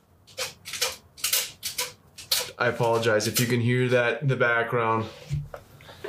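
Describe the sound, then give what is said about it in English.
A dog barks excitedly in a quick series of sharp, loud bursts, then a person starts talking while the barking fades into the background. “Um, my dog's going nuts over here.”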